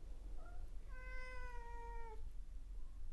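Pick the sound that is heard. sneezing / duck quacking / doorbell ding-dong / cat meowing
cat meowing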